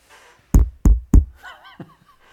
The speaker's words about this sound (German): muss aber vorher, nee, musst vorher anklopfen, ist zu. Okay. Klopfst du jetzt mal?